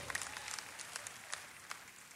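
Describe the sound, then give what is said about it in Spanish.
Quiet audience applause: a patter of many hands clapping, with crisp, irregular claps and a few sharper ones standing out over a soft, steady wash, and no voices. “Sí, porque aplaudieron, pero el dar no lo aplaudieron.”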